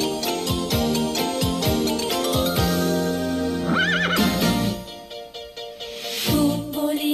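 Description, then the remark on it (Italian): A bright, bouncy Italian cartoon theme song intro with a steady beat, interrupted midway by a loud, wavering horse whinny over the music before the tune carries on. “noi mettiamo le sigle dei cartoni che riguardano certamente più quelli della nostra età”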